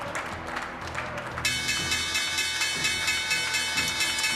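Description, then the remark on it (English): The NYSE and NASDAQ opening bell breaks in after a moment of crowd murmur and rings on steadily, a bright, continuous metallic clang layered over clapping and crowd noise. “Guys, there's the opening bell. NYSE and the NASDAQ, of course.”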